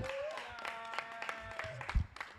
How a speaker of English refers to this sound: Get in there. Give her a clap.